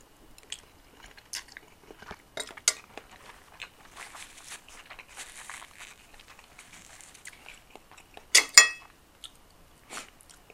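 Quiet chewing and crunching at dinner with soft clicks of cutlery, scattered irregularly, plus a sharper clatter of utensils near the end. No one speaks.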